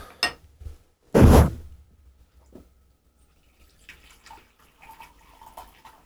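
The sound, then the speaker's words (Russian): A brief splash of water being poured to brew sheng tea, loud for a moment and then cut off, followed by faint trickles and soft clinks, otherwise quiet. “Сейчас я его еще заварю, и он еще, наверное, 2-3 заварки выдаст.”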